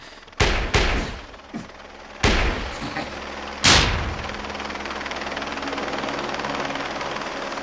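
A helicopter lands outside, its steady, droning rotor roar filling the scene, preceded by several sharp, loud bangs in quick succession during the first few seconds. No one speaks.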